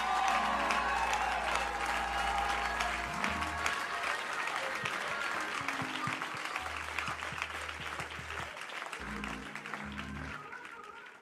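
A church audience applauds its youth ministry leaders loudly and steadily, dense overlapping clapping that holds its level for about eleven seconds, with sustained low musical notes sounding underneath.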